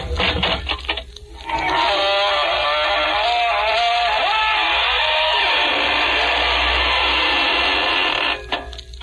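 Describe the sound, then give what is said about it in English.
The squeaking door of the Inner Sanctum Mysteries radio program: a long, slow creaking squeal as it swings open, loud, its drawn-out groaning pitch wavering for several seconds before stopping abruptly. “This is your host to welcome you through the squeaking door.”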